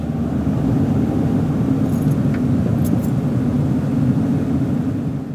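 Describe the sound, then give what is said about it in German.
A steady, droning vehicle engine hum with heavy low rumble runs continuously at constant loudness, used as a sound effect to suggest a journey, with a few faint metallic clinks near the middle. “Oder um eine Reise zu verdeutlichen, einfach so Motorengeräusche.”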